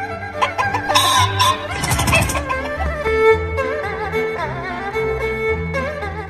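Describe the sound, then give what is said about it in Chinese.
A rooster clucks in a run of short, bright calls over steady tonal background sound, with a louder rough burst about a third of the way in; no one speaks. “二十七宰公鸡”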